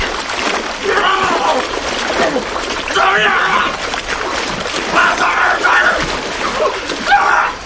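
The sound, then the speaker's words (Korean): A man's body tumbles down an earthen embankment, piled with soil and without a railing, into water, followed by steady, noisy splashing and churning as he flounders throughout, with muffled, wordless vocal sounds rising through the commotion. “몸이 난간도 없는 준설 때문에 여기저기 흙을 쌓아놓은 방죽 아래로 굴러떨어졌다.”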